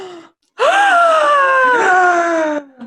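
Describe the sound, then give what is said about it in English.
A loud, drawn-out voiced gasp that rises sharply, then slides slowly downward in pitch for about two seconds before cutting off, with a brief breathy trace just before it. “Audible gasp.”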